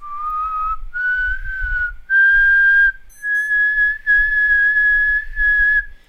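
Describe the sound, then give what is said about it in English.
Loud, eerie human whistling in a slow melody of several long sustained notes that climb gradually in pitch with brief gaps between phrases, heard alone without any talking, meant to depict the whistling of El Silbón from legend. “Uh, by the way, supposedly this is what he sounds like, alright”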